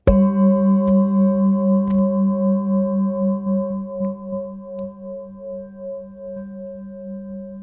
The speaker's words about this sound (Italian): Io suono la campana tibetana che si addice particolarmente a questo telefilm più che ad altri.